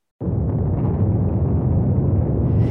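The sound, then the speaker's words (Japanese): A cartoonish explosion sound effect, depicting a company president exploding, kicks in abruptly and roars on as a loud, steady, bass-heavy rumble with no letup, alone for a couple of seconds. “や、やばい社長が爆発する”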